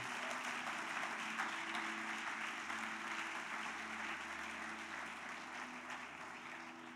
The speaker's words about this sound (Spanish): Dele ese aplauso a Él. A Él sea la gloria.